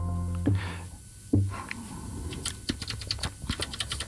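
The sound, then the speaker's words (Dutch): Two dull thumps, then a quick, irregular run of clicks from someone typing on a computer keyboard while setting up a NOS op 3 news recording, the keystrokes crisp and fairly loud with no talking. “Nee, die andere muis en toetsenbord.”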